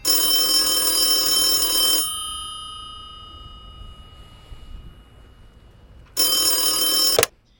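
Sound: telephone bell ringing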